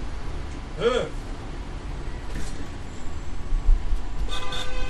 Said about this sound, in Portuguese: Ó, oh, a buzina, a buzina. A buzina